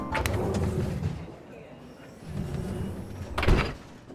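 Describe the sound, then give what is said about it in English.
A low, steady rumble of a train at a station, broken by two sharp, heavy whooshing thuds of sliding doors, one right at the start and a louder one near the end. “Hey, that's our train.”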